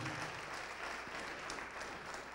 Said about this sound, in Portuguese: Vamos aplaudir mais ao nome de Jesus, vem para esse lado aqui também.